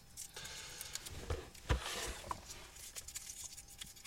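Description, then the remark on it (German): Continuous rustling of paper slips being stirred around in a draw pot, with irregular crackles and one sharper rustle in the middle; no one speaks. “Dann, äh, ihr hört es hier rascheln wahrscheinlich.”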